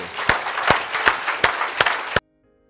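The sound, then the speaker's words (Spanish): An audience applauds the Lord in gratitude, a dense wash of many hands clapping with sharper claps landing at a steady, almost rhythmic pace, before the sound cuts off abruptly into silence. “Aquellos que lo creamos, démosle un aplauso al Señor de gratitud.”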